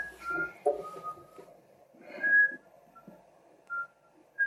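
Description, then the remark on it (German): Someone whistles a melody, clear sustained notes rising and falling in a loose tune, with short pauses between phrases and faint background noise. “Ich, ich finde das Pfeifen viel angenehmer, als wenn ich irgendwas erzähle.”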